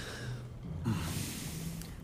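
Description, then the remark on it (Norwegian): A sick cow with a bell around its neck, lying still on straw in the innermost stall of a barn, breathes heavily: a long rasping exhale with a low, rumbling groan partway through, over steady barn background noise. No one speaks. “Eh, den er også med i bjella eh, rundt halsen, men den ligger stille oppe på halmen og puster tungt.”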